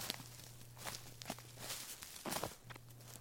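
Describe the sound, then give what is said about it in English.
Quiet footsteps tap along at an uneven pace, several soft steps, with a faint low hum running underneath and no one speaking. “Until all you hear is the sound of your own footsteps?”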